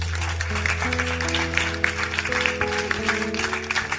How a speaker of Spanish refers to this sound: porque no le damos un fuerte aplauso a nuestro Dios?